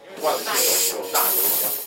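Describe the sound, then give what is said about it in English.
Helium gas hisses loudly into a balloon that fills into a heart shape, in two sustained bursts separated by a brief pause, with a bright, airy rushing quality. “A helium balloon is filled up and turns into a love heart”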